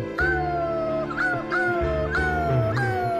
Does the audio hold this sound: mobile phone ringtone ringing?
no